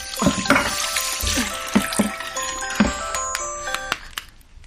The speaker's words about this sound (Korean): 아뭐 한다고 이렇게 숨이 가빠. 어, 설거지.